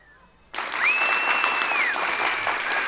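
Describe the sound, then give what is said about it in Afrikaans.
A group of people suddenly bursts into loud, dense applause that continues steadily to the end, while a brief high whistling tone sounds over the clapping near the start. “Almal klap hande, want almal is dit eens.”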